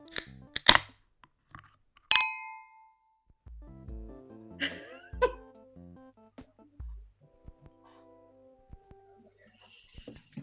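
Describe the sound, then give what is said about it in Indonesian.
Glasses clink together in a toast: a couple of quick taps, then one bright clink that rings briefly. Soft murmuring voices and small handling noises follow. “Oke, okay, let's cheers dulu.”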